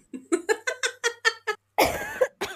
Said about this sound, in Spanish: Bueno, tengo una tos, chiques, perdón, sepan perdonar, espero que no se escuche tan fuerte, pero no me abandona esta tos regular,